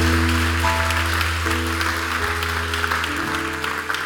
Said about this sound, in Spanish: No le damos un fuerte aplauso a Dios por eso. Vamos, dale fuerte el aplauso a Dios por eso.